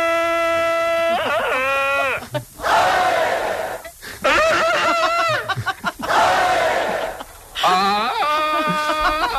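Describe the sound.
Several Iberian men, asked to do Tarzan's yell, take turns bellowing loud, warbling Tarzan-style yells, their voices wobbling up and down in pitch, with brief breaths and crowd noise between the cries.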